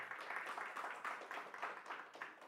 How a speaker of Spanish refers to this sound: Un fuerte aplauso para nuestro Señor y vamos a orar.